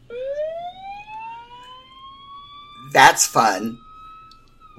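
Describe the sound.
A phone sounds a siren-like alert, a single steady electronic tone that swoops upward and holds for a few seconds, clear, before someone briefly speaks.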